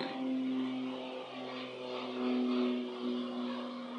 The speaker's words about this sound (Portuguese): É, eu vou, eu vou deixar, eu vou deixar, eu vou deixar o avião passar. Eu vou deixar o avião passar porque ele passou muito passante.